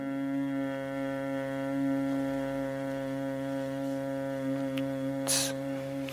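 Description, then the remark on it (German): A long, slow humming exhale during a breathing exercise: one steady low-pitched tone held for several seconds with rich overtones, fairly loud and even, with a short breathy hiss near the end. “Und dann summend ausatmen.”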